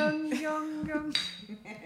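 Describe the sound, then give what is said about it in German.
Glasses clink together a few times in a toast, each touch leaving a bright, sustained ring that overlaps the next, with faint murmuring in the background. “Prost, meine Lieben. Prost, Prost. Klonk.”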